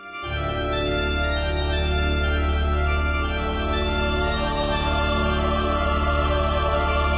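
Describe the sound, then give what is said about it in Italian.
A massive sustained chord from pipe organ and choir swells in almost instantly and holds steady, loud and dense, forming a continuous airy wall of sound that serves as the wind sound in a video game. “Non ci sono effetti sonori generici di bufere e vento, c'è questa colonna d'aria immensa prodotta dall'organo e dal coro.”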